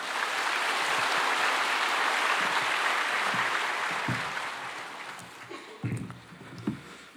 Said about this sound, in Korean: 나오십시오. 예. 박수로 환영하겠습니다.